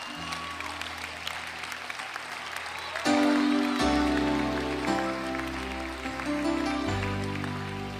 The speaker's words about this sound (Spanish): Dámele un aplauso al Señor.